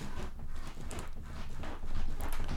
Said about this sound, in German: mir wird zwar nicht viel Ausschlag angezeigt, aber ich glaube, es ist trotzdem hörbar so ein bisschen. Äh, mein Schreibtischstuhl gibt gerade den Geist auf. Ähm, nach boah, ich glaube, nach zehn Jahren oder so,